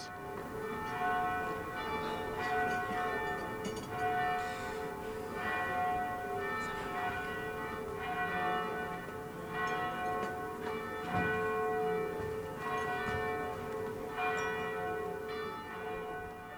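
Church bells peal continuously, several tones ringing and overlapping in a steady, unbroken rhythm, heard from some distance outdoors over a rushing background of wind and street noise.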